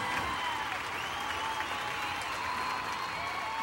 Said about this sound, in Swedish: Applåd, applåd gumman.